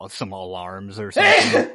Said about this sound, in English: The traditional spoiler sneeze